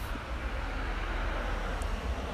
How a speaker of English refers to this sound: so every once in a while, you're going to hear some traffic as it goes by, and I'll probably pause during those moments, let uh, so I don't have to talk over them.